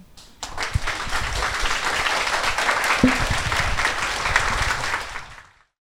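An audience applauds steadily for about five seconds, a dense patter of many hands clapping at even loudness before tapering off quickly at the end.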